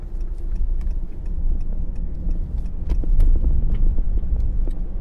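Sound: car driving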